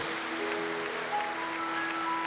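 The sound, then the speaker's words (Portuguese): An audience applauds for the Lord near the end of a church worship service, a steady, dense wash of clapping that fills the whole moment, with faint sustained instrument tones ringing underneath. “E agora um lindo aplauso ao Senhor, em nome de Jesus.”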